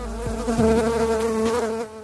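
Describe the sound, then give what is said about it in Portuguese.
A mosquito buzzes in a steady, droning whine for about two seconds, loud and continuous with no voices, then cuts off abruptly. “Estes aparelhos apenas espantam o mosquito, que poderá voltar em outro momento, quando eles estiverem desligados.”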